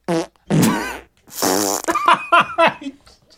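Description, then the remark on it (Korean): A rapid series of loud fart sounds bursting out like a donkey's bray from members of a yoga class: a short blast, two long drawn-out buzzing ones, then a string of shorter sputtering pops trailing off. “이 푸는 당나귀 소리처럼 터져 나오기 시작한 겁니다.”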